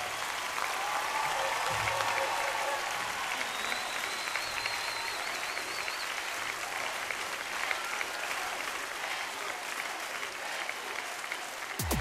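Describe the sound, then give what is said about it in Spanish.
A large audience applauds and cheers continuously for the Lord, a dense, steady roar of clapping and shouting that stays loud throughout, with occasional whistles rising above the crowd. “Tu mejor porra, tu mejor gritería, tu mejor barra, tu mejor grito, tu mejor aplauso.”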